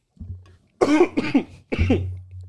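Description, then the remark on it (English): Three harsh coughs come in quick succession, each a loud rough burst with a short gap between them, after a brief quieter sound at the start. No speech. “Hey, bro, t- give it a cough drop or something.”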